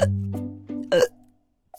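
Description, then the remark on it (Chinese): A voice makes a run of loud, voiced hiccups, about four in quick succession, followed by a short pause and one faint, brief hiccup. “哦不，打嗝是最糟糕的，我会一直打下去的。”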